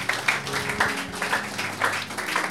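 A crowd claps for Jesus in a loose, steady rhythm, the bursts of applause rising and falling over a sustained low hum, with no voices standing out.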